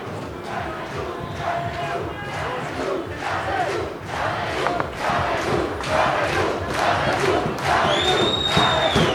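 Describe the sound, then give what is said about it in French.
A large protest crowd shouts and chants continuously, a dense wall of overlapping voices with rhythmic surges, and a shrill whistle-like tone rising near the end, as demonstrators try to leave the planned route via rue Écuyère to march into the town centre, around 16:20. “Les manifestants tentent de dévier du parcours initialement prévu en passant par la rue Écuyère pour manifester en centre-ville.”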